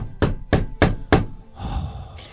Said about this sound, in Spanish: ¿Quién cuerno toca la puerta?